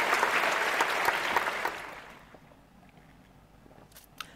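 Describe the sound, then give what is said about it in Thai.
Someone taking a drink of water: about two seconds of dense, hissy, crackling noise, like liquid and a plastic bottle, that fades into near quiet with a small click at the end. “กินน้ำนิดนึง”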